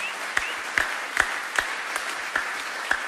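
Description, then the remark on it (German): Short applause that the audience at a celebration gives themselves, made of steady, evenly spaced hand claps, about eight sharp claps in three seconds, moderately loud over a faint hiss, with no one talking. “Deswegen gib dir nochmal kurz einen kleinen Applaus, weil sonst macht es ja keiner.”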